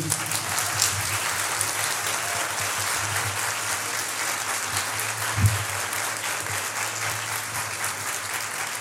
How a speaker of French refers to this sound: Merci à tout le public. Je suis choqué de voir autant de monde. Donc merci beaucoup. On peut applaudir les invités.